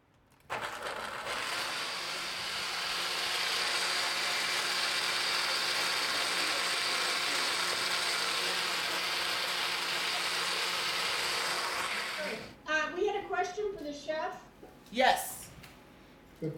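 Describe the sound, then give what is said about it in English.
A kitchen blender purees an onion sauce during a cooking demonstration, running with a loud, steady motorized whir for about twelve seconds, its harsh buzzing tone holding even, then cuts off as people start talking. “So we're going to put this in the blender back here. Okay. And it's going to get a bit, a little bit loud, so you can talk amongst yourselves while this is happening.”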